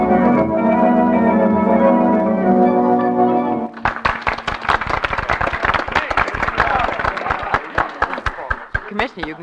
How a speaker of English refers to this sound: stop applauding now.